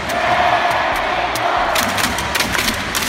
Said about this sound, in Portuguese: Parênteses, como é que era o grito de guerra do coreano,